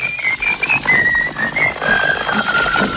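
A wordless march tune is whistled in clear, sustained notes that step up and down in pitch, carried over a dense, steady background texture with no talking; the whistled refrain is the version chosen by the BBC, used because it cut through enemy jamming.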